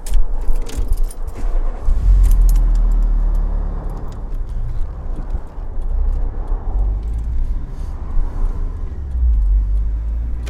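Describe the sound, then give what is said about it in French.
Keys jangle briefly, then a car engine turns over and settles into a steady low rumble as the car pulls away from beside a motorway after its wheels were checked, no voices present. “Repartir.”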